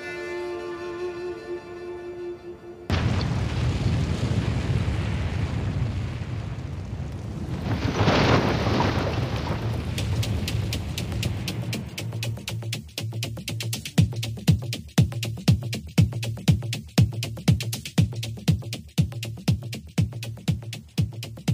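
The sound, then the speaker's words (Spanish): A steady roar of a large fire burning a library that holds Bosnia's heritage, later joined by loud, regularly repeating cracks and pops, follows a brief sustained tone at the start. No voices are heard. The audio comes from an Al Jazeera news report on librarians. “Este es el sonido de una biblioteca en agonía, de cómo el fuego fagocita la memoria de toda una cultura.”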